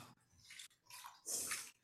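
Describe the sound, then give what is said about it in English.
Lettuce being swished and mixed around in a bowl of soaking water so sand settles out, with three sloshing bursts, the last one the loudest and splashiest. No one speaks. “you don't want to pour the lettuce out because then any sort of sand and material that's in there will just go back into your food.”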